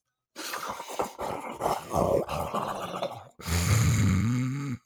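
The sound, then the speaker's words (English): A person makes an exaggerated snorting noise as if snorting a line of cocaine: a long, raspy, sputtering inhale lasting about three seconds, then a louder, throaty, groan-like snort with a low voiced rumble. “Coming off of two great episodes, going right into the shithole again let me just snort a big old line of cocaine here, and maybe that'll give me the pep I need to do this podcast.”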